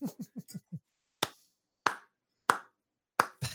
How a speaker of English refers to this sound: Slow clap.